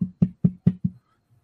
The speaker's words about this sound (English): Sheriff, come knock at the door.